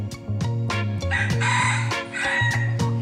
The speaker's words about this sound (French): Et hier, les députés ont adopté une proposition de loi pour protéger les agriculteurs des plaintes pour nuisances olfactives ou sonores déposées par des citadins venus s'installer à la campagne. Les coqs pourront continuer à chanter.